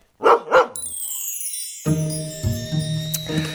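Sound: dog barking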